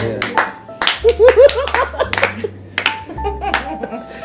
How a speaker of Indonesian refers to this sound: Ini pada tepuk tangannya heboh juga ya. Lumayan.